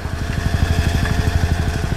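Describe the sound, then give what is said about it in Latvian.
A tractor engine runs steadily in the warehouse premises of the Riga trade port, Latvia, its low, rapid chugging pulses repeating in an even rhythm with a rough mechanical rumble and no voices. “Bet Rīgas tirzniecības ostas noliktavas telpās vēl nesen brauca traktori,”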